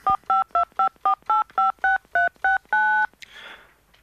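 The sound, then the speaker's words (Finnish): A quick run of about eleven electronic telephone keypad tones dialing a maintenance company's switchboard number, evenly spaced beeps with the last held slightly longer, followed by a brief soft rustle as the line connects. “Tässä on niiden keskuksen numero. Jaha, no minäpä soitan.”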